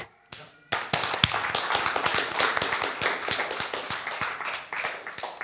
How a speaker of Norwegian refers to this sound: Applaus.